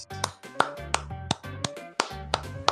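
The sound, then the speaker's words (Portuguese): Steady rhythmic clapping, sharp claps landing roughly three times a second over a background of music with a low bass line and sustained tones. No one speaks. “Sensacional, palmas!”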